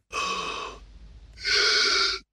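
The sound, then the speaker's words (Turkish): Two short, raspy gasping breaths, one drawn in then another after a brief pause, as a person imitates the labored, shallow breathing of patients in the late stages of emphysema, with no talking. “Amfizem hastalığının son evrelerinde hastalar bu şekilde nefes alıp verirler.”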